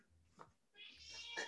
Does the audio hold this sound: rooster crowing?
no